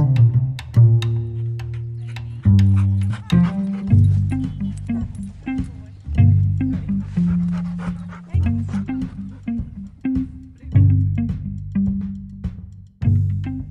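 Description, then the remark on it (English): A voice actor imitates a dog, giving a long run of short barks and yips mixed with whiny, whimpering cries, one after another with brief pauses between. “How many people can say they've played a dog on a podcast?”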